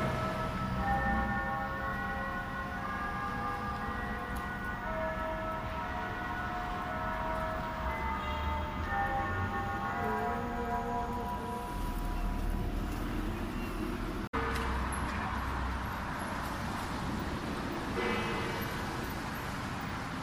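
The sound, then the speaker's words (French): A clock tower bell rings sustained tones at several pitches at 7 o'clock on 23 May, over a steady wash of traffic on a street with many people, the chiming fading after a while as the traffic rumble carries on. “C'est le son de la cloche.”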